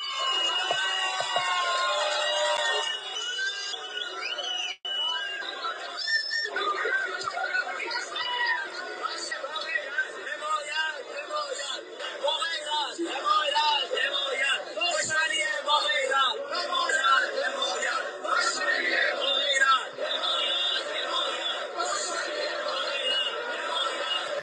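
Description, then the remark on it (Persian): A dense crowd of many voices fills a street in Kashmar, shouting and chanting slogans together in a continuous, loud roar with rising and falling cries and occasional higher-pitched yells. “خیابون پر جمعیت و بچه ها دارن با شعارهای زیبای خودشون کاشمری با غیرت”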